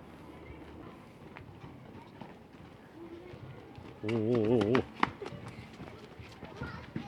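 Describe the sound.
Children play and run around outdoors in a town park, playing tag and baseball, with scattered shouts and quick footsteps. Midway through, a voice lets out a loud, drawn-out exclamation.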